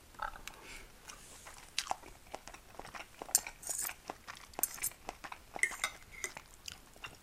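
Steady chewing and crunching of food while eating lunch, with soft bites repeating irregularly, mixed with occasional light clinks of cutlery and dishes; no one speaks.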